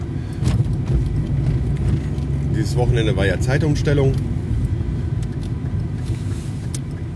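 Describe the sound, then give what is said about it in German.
Steady low road rumble and engine drone fill a moving car's cabin as a man drives to work, with him speaking briefly in the middle over the continuous hum. “ich bin auf dem Weg zur Arbeit. Aber nein, ich fange keine Stunde früher an, ich habe einfach die Uhr im Auto noch nicht umgestellt”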